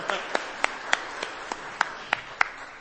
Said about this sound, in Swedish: Ja, en applåd.